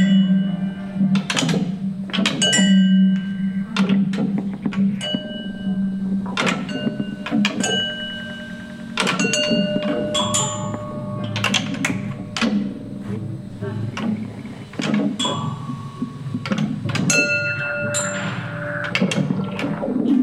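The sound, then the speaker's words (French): A pendulum sound installation is launched and plays, mixing irregular clattering knocks with sustained ringing tones and a low synthetic drone generated from the acoustic sound picked up by a contact microphone, layering continuously at moderate loudness for the whole stretch, with no one talking. “ce qui génère un son acoustique qui est aussi enregistré à l'aide d'un micro-contact et qui permet de générer une composition synthétique euh, qui s'ajoute à la composition acoustique.”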